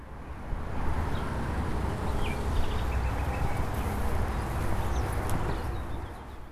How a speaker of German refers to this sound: also wenn wir uns jetzt äh, die Autobahn nochmal anhören und dann äh, nach einem Cut Meeresrauschen kommt, dann kann man vielleicht ganz schön die, äh, den Unterschied raushören. Es folgt das Tonbeispiel Meeresrauschen, Brandung. Und nun Autobahn.